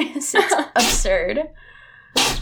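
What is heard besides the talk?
sneezing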